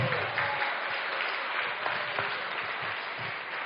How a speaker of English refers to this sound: And come on, come on, let's keep going. a good clap offering one more time.